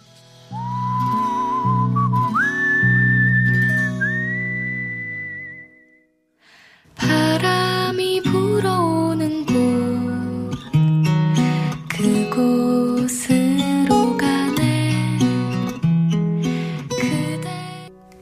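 An acoustic pop song plays clearly. A whistled melody over soft strummed chords opens it, then after a brief pause a fuller arrangement with instruments comes in. There is no talking.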